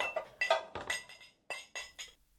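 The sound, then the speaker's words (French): Dishes clink and clatter as Martin, Lolo and Billy clear the table after their snack of crêpes. A quick run of about eight bright, ringing knocks comes in uneven bursts, with a short pause before the last few and no talking. “Une fois leur goûter avalé, Martin, Lolo et Billy débarrassèrent la table avant d'aller jouer dans le jardin.”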